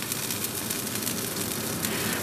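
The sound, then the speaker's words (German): A vegan fried egg, made from a thick white liquid squeezed from a tube, fries in a pan: a steady, dense sizzle, a continuous hiss with fine crackling and popping throughout, even in loudness with no voices. “Ja, also wenn das in der Pfanne ist, dann klingt das eigentlich wie ein ganz normales Ei.”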